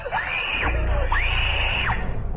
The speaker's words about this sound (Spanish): Al regresar del compartimento de baño, alguien le tapa los ojos y la boca. Es una señora vestida de señor. El niño grita horrorizado.